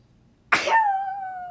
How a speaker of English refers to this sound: that sneeze missed me. If I die, I'm blaming it on the sneeze. I had to close my eyes.